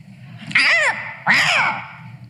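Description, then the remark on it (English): A crow caws twice, two loud, harsh, drawn-out calls with a short pause between them, over a faint low rumble of background noise. “Singers, unless you're talking about crows, they're just gossips.”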